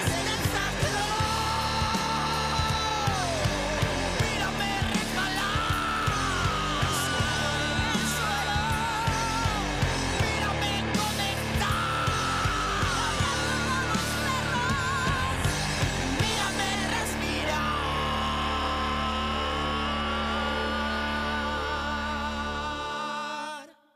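A loud, dense rock band song by a band from La Paz, Bolivia plays steadily with a sung vocal line over driving drums and guitars, ending on a sustained chord that abruptly cuts off.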